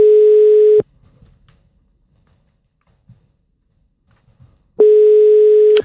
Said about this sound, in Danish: Og hvad, uh, skal vi, vi prøver lige at ringe til den der butik der? Ja. Så ser vi lige, om der er nogen, vi kan tale med.